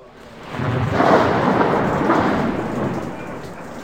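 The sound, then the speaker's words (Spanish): A deep, rumbling roll of thunder swells in and lingers for several seconds over a steady wash of heavy rain, loud with no voices. “A través del cristal de la taberna familiar pude distinguir, gracias a la luz de un trueno, a un hombre fornido con una barba discreta y oscura.”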